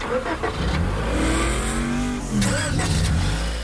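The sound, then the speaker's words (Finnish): A car engine revs hard and continuously, its pitch climbing and sweeping upward in repeated surges like a race car accelerating, loud throughout. “Meillä on tässä tämmönen vähän erityyppinen äh, autokilpailu, Joo. joka Joo. starttaa nyt.”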